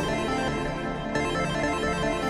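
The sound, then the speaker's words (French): A telephone rings with a dense, electronic ringtone-like tone, playing steadily and loudly throughout without pause, with no voices heard. “Ring, ring, ring postman. Who this?”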